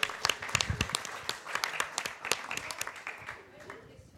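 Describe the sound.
A small crowd applauds a guest as he is introduced, with dense, irregular hand claps running steadily for several seconds at moderate loudness, thinning slightly toward the end, with a faint murmur of voices underneath.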